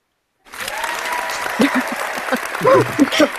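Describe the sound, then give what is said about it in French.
An audience breaks into steady, loud applause after a brief silence, with a few voices calling out and cheering over the dense clapping. “Applaudis parce que je pense que c'est vraiment important de, rappeler ça, surtout euh, vu, vu ce qu'on vit euh, depuis fin 2016 et puis encore maintenant.”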